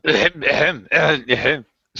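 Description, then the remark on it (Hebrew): A voice imitates coughing from smoke blown by a dragon: four quick, harsh, throaty coughs in a rapid series, then a brief pause before another begins. “אז היא משתעלת מהעשן.”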